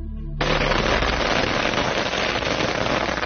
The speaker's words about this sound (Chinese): 莲花村的村民们纷纷来到指认现场，有些村民还主动放起了鞭炮来表示庆贺。